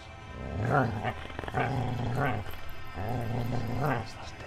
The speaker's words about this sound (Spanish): El perro seguía gruñendo y ladraba muy agresivo.